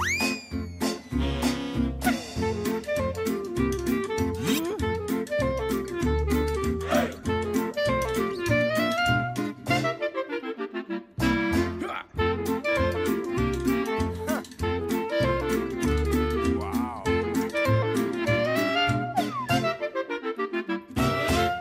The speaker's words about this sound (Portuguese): Já tinha saudades de ouvir este genérico.